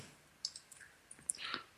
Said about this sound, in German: So, du hörst mich auch tippen wahrscheinlich, ne? Nee. Äh, hörst du mich hier klicken und tippen und so? Ja, ich höre dich klicken und tippen.